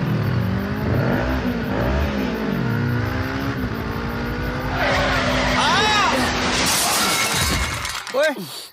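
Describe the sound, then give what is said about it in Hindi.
Motorbike engines roar and rev in a race, with rising and falling whines, a tire skid, and a sharp crash of shattering glass near the end; voices are mixed in the din. “तुझसे रेस करके भी मैं ही जीतूंगा अबे चल डरपोक किसको बोला आ चल रेस लगाते अब भी पता चल जाएगा चल”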